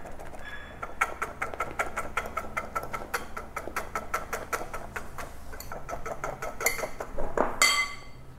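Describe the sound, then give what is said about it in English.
Egg whites are whisked by hand in a bowl toward a stiff meringue, a steady, rapid run of metallic clicks and taps, continuing for several seconds with no talking. “So I'm just going to keep whisking until I have a stiff meringue.”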